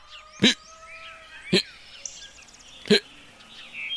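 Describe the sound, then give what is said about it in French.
A voice mimics a hiccuping rooster with three sharp, loud hiccup sounds spaced about a second apart, while birds chirp and twitter faintly in the background. “Voilà maintenant que le coq a le hoquet.”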